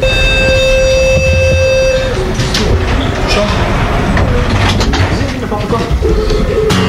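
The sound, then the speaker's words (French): A voice imitates a metro train leaving: a steady, horn-like tone held for about two seconds, then a loud rumbling whoosh of a departing train that continues to the end. “Est-ce que tu es prêt Attention, le métro va partir.”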